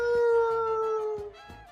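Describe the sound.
A person imitates an ambulance siren with a long, steady, wailing voice that holds one pitch, then slides slightly lower. It is fairly loud, with faint thuds underneath and no speech.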